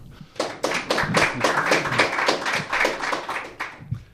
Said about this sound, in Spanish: Eh, y también estamos acompañados de pues un montón de chavales que estáis de vacaciones ya y hoy han querido venir a ver nuestro programa. Eh, un aplauso, por favor.